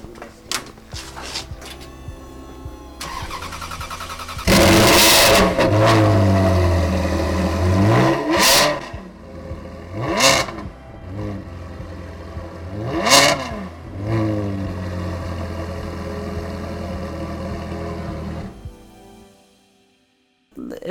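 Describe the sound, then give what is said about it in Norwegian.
A Ferrari 335 GTS engine idles and then revs hard several times, each rev a rising roar before dropping back, recorded with the microphone at the rear exhaust pipes so the rumble is loud and gritty. “Har mikrofonen bak på, på røra, på eksosrøra helt bak.”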